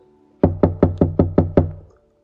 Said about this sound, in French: Un jour, alors qu'elle venait de sortir les quatre pains du four, trois pauvres frappèrent à sa porte